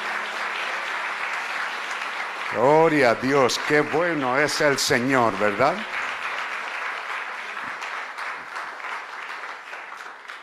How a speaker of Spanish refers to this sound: Demos un aplauso al Señor, digamos gracias.